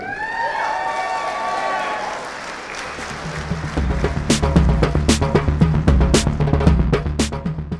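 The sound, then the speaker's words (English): An audience cheers with high, wavering voices, then loud, dense clapping takes over and continues in a steady, rapid patter to the end. “I'm sorry, there's one thing I've learned from my sisters on the progressive left is that clapping is triggering.”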